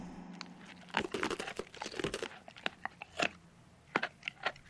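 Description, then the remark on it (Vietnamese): Crisp crunching of an ice cube being chewed by a dog, a burst of rapid cracking bites followed by several sharp, separate crunches spaced apart. No voices. “Một lát sau, con chó ngoạm luôn cả cục đá và nhai rào ráo”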